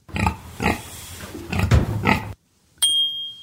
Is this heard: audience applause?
no